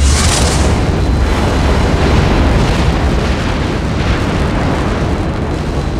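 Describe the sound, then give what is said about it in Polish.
A massive explosion of destructive energy bursts out with a sharp crackling blast, then rolls into a heavy, sustained rumbling roar that stays loud and deep for several seconds without fading, as a wave of hot air gouges a deep crater into a forest. No one speaks. “Fala rozpalonego powietrza zmiotła ze swej drogi wszystko i wszystkich, żłobiąc głęboki podłożny krater, ciągnący się kilkaset metrów w las, dzielący puszczę na dwie części, jakby drogą usypaną z jałowego piachu.”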